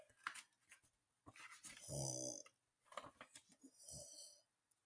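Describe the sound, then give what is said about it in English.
A wolf snores loudly, with deep, growly rumbling breaths in a few uneven bursts. The longest, heaviest snore comes midway, and there is no talking. “The wolf snores.”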